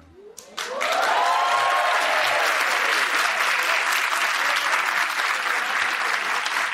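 An audience bursts into loud, sustained applause for the interviewee's wife, who is watching the show. The applause swells within the first second and holds steady, a dense wash of clapping with a few faint cheers mixed in at the start.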